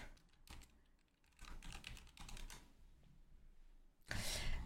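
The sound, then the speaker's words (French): Rapid, irregular clicks of someone typing on a computer keyboard, in uneven bursts with short pauses, ending in a louder, denser flurry of keystrokes. “Attends, je suis en train d'écrire”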